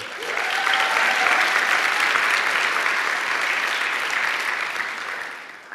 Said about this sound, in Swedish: Är det några som har varit på life class nu innan här? Ska vi ge dem en stor applåd?